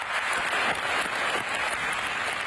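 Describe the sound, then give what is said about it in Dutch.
A long ovation of dense, steady applause, many hands clapping at once in a continuous loud wash of sound with no pauses and no speech. “Ja, natuurlijk de ovatie, eh, heel veel geklap en uh, gejuich zelfs ook bijna.”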